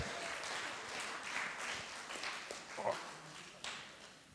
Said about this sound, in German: Gib der Jugend mal einen dicken Applaus. Ihr habt das super gemacht.